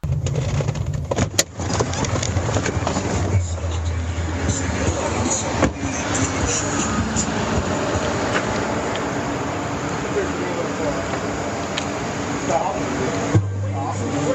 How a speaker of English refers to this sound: I start this audio the moment they get out of the car. You hear the car door.